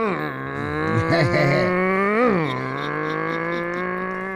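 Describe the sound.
A single voice imitates a revving motorcycle engine with the mouth, a steady buzzing drone that swells and dips in pitch, holding for several seconds.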